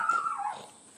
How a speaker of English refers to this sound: uh, excuse my dog